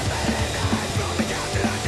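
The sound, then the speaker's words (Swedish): Loud, dense, punky grindcore blasts continuously, a trebly rather than heavy wall of distorted noise with rapid pounding drums and harsh screamed vocals from two singers throughout. “Så det är två som skriker.”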